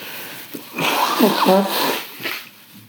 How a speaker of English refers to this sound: But hold on, I'm gonna blow my nose. Got a cold here.